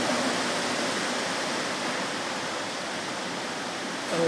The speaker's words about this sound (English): whenever it rains like this, it seems to be a message. The way it rains here, it can only be a message.